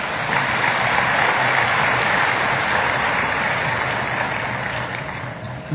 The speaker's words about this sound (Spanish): Dele un buen aplauso al Señor.